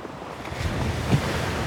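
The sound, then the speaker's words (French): Steady wash of sea waves surging and rolling around a ship at night, with a low rumble and gusty wind noise, swelling slightly near the end; no voices. “Cette fois-ci, ce ne sera pas dans la demeure familiale, mais sur le bateau des pirates.”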